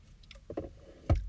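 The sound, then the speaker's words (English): Quiet drinking sounds: a few soft sips and swallows of water, ending in a louder thump as a bottle or cup is set down. No talking. “I'm gonna take a drink of water real quick.”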